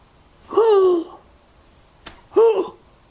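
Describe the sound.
A voice imitates a dying man's last gasps: two loud, strained voiced intakes of breath separated by a pause, with a faint click just before the second.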